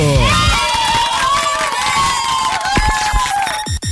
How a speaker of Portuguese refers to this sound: Aplausos pro nosso cardápio.